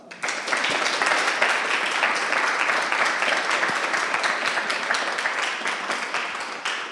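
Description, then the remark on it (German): A live audience breaks into sustained applause to welcome the evening's guest: dense overlapping clapping that starts abruptly and holds steady at full volume for several seconds, with no talking over it. “Und dann begrüßt doch einmal zusammen mit mir unseren heutigen Gast.”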